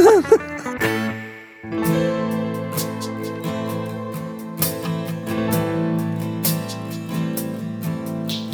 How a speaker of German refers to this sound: Ich habe euch dafür dieses, dieses Lied komponiert. Das mit dem Delfin? Ja. Können wir hören noch mal rein?